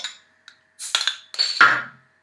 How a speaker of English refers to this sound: Um, and this is O'Hara's L'Enfant. It's just a nice, easy drinking stout, really rich flavors, um, and it packs a kick at 6%. Crack open the bottle